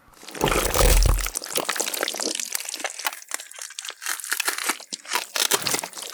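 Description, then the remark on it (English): A sound effect of eating sardines and pretzels: loud, wet chewing and crunching, with irregular crackly bursts and a heavy low rumble at the start, then steady smacking munches continuing without any talk. “This is what you hear, and anybody around you hears as … eats sardines and pretzels.”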